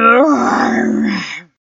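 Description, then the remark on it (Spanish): A human voice imitates Tío Tigre, a tiger in a folk tale, growling contentedly: one loud, low, drawn-out rumbling groan lasting just over a second, steady in pitch before fading out into silence. “gruñó complacido.”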